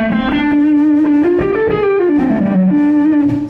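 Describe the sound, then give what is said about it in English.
An electric guitar played through a fuzz pedal plays a sustained, singing lead line with smooth bends and a thick, saturated tone, loud with no talking. “Uh, the fuzz in front of it sounds like this.”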